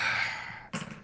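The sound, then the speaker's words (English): A long, breathy inhale drawn through a plastic toy's razor claw attachment, miming smoking a blunt, hissing and airy, followed by a short exhale or puff, with no talking. “I was doing the pantomime for smoking a, a sweet blunt, but in fact, it's it's the razor claw attachment to steel jaw, which is a Decepticon.”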